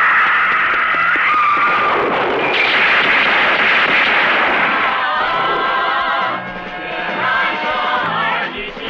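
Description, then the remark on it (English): Loud gunfire erupts in a dense, continuous barrage of harsh cracks and booms, overwhelming, later thinning slightly as a ringing, screeching tone threads through the noise, in a martial arts film scene as a man charges at police. “There's a beautiful freeze frame to capture the leap as the sound of gunfire erupts behind it.”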